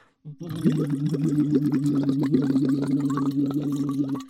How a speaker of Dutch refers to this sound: Hoor je het water ook klotsen?